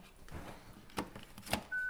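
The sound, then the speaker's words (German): A few separate telephone keypad beeps, spaced unevenly, ending in a steady electronic tone. Nobody speaks. “Das Telefon kannst du hier lassen.”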